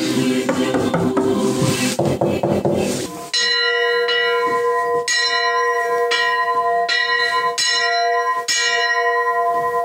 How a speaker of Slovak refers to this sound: Kostolným zvonom som ešte nezvonil